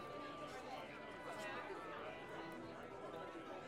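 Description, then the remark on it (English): A steady wash of crowd chatter, many overlapping voices blending into continuous babble with no single speaker standing out: the sounds of a festival going on outside, heard from inside a building. “So, you two settle in, and you can hear the sounds of the festival going on outside, kind of creating this dark almost morbid contrast to what's going on in the building.”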